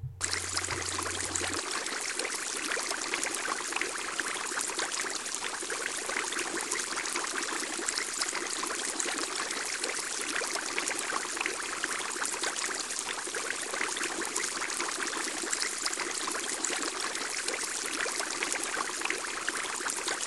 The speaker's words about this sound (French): Pour en savoir plus sur cette histoire de fin du monde, nous passons en direct au son d'une pompe d'aquarium.